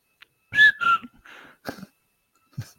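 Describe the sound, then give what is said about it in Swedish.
A person whistles the Swedish number seventy-seven, a short phrase that mimics the rhythm of the spoken number: two strong, sliding whistled notes followed by a few softer, breathier bursts, alone. “Ja, det, är den enda, tja, det är den enda siffran som går att vissla, visste du det?”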